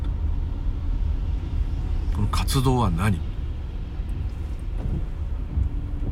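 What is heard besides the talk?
car driving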